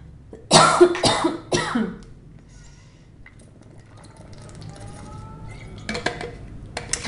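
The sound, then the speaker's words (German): A loud cough fit: three harsh bursts in quick succession near the start, followed by a few seconds of quiet and a softer rustle near the end. “So, jetzt hatte ich gehustet.”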